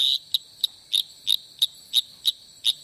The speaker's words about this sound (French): Ce sont les appels d'un séducteur, Litoria phalax.